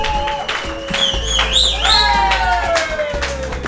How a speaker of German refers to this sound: die Veranstaltung hier mit organisiert und ich denke, das ist erstmal einen kräftigen Applaus wert.